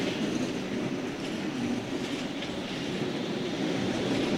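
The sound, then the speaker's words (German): A train rolls steadily through a tight track curve at the east exit of Cologne main station, Germany, between the platform ends and the Hohenzollern Bridge: a loud, continuous rumble with rattling wheels and faint metallic hiss above it, with no voices. “Ziemlich genau da, wo halt dieser enge Gleisbogen ist, was man auch so ein bisschen hören kann.”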